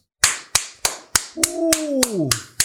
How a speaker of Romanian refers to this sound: Like-ul îi spui aici niște aplaudismente de cele.